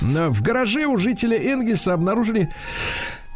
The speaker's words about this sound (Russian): Будьте здоровы,